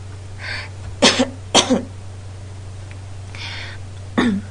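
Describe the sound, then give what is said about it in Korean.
An old man's raspy coughing: a couple of harsh double coughs close together, then a pause and one more cough, over a steady low electrical hum. “아, 영감님 기침소리.”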